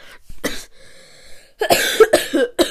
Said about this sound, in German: Mann, dieses Husten nervt.